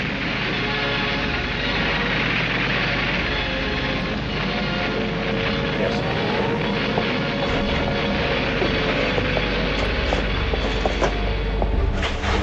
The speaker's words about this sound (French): Le maréchal du Reich Hermann Göring dirige personnellement de la côte de la Manche les attaques de son aviation et puis les avions allemands s'envolent vers l'Angleterre. Ils bombardent nuit et jour les buts militaires de la capitale anglaise.